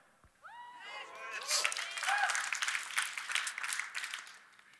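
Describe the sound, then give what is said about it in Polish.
Scattered, fairly subdued applause from a church audience, a patter of many hands clapping for a few seconds, with some brief voices over it at the start. It comes during the first week of Lent at the church. “Wiecie, to jest pierwszy tydzień postu w naszym kościele, więc rozumiem trochę osłabnięcie z, tych, z, wiecie, z tymi oklaskami.”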